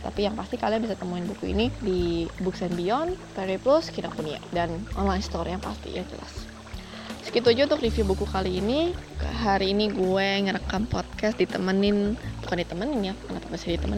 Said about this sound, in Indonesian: Hari ini gue ngerekam podcast di sungai. Jadi kalau kalian dengar suara-suara berisik di belakang atau suara-suara air, nah ini gue lagi ngerekam podcastnya di sungai.